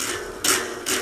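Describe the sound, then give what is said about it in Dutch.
Two dull, thumpy plucks of rubber strings on a toy electric guitar, about half a second apart, fairly loud over a steady hiss, with no talking. “dat zijn rubberen snaren”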